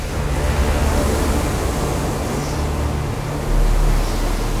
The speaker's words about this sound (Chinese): 高高的大浪，好比从海里伸出来巨大的手，想要摧毁村庄的房屋、道路，也想要抓住人们，还有小动物们。